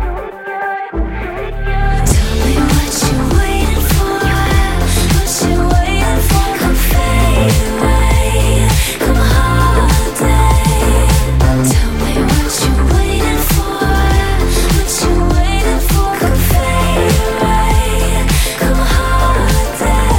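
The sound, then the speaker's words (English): A loud, full-band song with a steady driving beat kicks in after a brief pause, carrying a free-spirited female lead vocal over dense instrumentation throughout. “It's just tons of, I like how free spirited she sounds, and she's got this incredible voice.”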